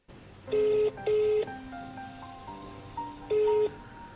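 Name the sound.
telephone dialing tones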